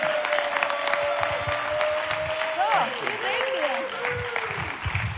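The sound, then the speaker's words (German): Sustained applause from a large audience standing in a church to welcome a pastor as guest speaker, dense and steady for several seconds, with a faint tonal whistle or feedback line gliding through and scattered voices mixed in. “Und wie es bei uns so üblich ist, stehen wir nochmal auf mit einem großen, warmen Bunsdorfer Applaus.”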